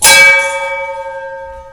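A single bell strike with a bright metallic attack, followed by a sustained ringing tone that slowly fades, loud with no voices.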